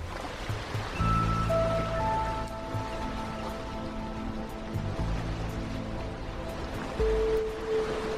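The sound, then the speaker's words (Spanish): Sea waves wash steadily onto a shore in a continuous rushing surge, with soft sustained musical tones drifting over the top and no voices. “Un rincón para contenidos culturales desde la isla de Mallorca en España rodeados por el mar Mediterráneo de color azul turquesa y una brisa marina.”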